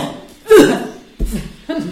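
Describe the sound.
Three short, muffled coughs into an elbow, demonstrating how to cough. The first is the strongest, and two softer ones follow about half a second apart, with no talking over them.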